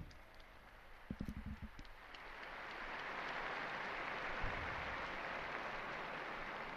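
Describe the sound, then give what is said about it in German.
A large crowd applauds the newly beatified, the applause swelling after a brief pause into a steady, dense roar of clapping, holding at an even loudness to the end, with a few short voiced bursts early on. “Einen Applaus für die neuen Seligen.”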